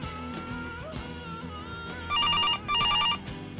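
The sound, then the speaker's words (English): A telephone rings twice in quick trilling bursts, loud, cutting over steady background music that plays throughout. No one speaks. “The phone does not stop.”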